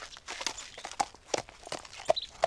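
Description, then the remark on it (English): A horse's hooves clip-clop in a loose, uneven rhythm as it arrives in Tasmania, a string of sharp knocks, fairly quiet and with no one talking. “Ah, a horse just arrived too, which is no wonder since there are plenty of horse riding spots in Tasmania.”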